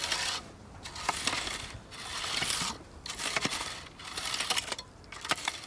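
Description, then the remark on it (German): A stirrup hoe with a double-edged steel blade scrapes through the top layer of soil in a garden on gently sloping ground at a forest edge, cutting weeds from their roots. Steady back-and-forth strokes, each a gritty, hissing rasp with small crunchy ticks, repeat about once a second with no voices. “Zum Jäten nimmt sie eine Pendelhacke. Zieht man sie über der obersten Erdschicht vor und zurück, dann durchtrennt sie mit ihrem zweischneidigen Stahlblatt die Beikräuter von den Wurzeln.”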